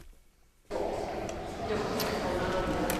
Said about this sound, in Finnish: Taidebussi on saapunut Paimion parantolaan. Tässä kiivetään Alvar Aallon suunnittelemia keltaisia portaita pitkin kolmanteen kerrokseen, jossa on Arte ryn taidenäyttely.